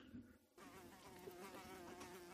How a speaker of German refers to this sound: Ach Gott, macht euch ab, jetzt kommt dann jetzt die Fliege her.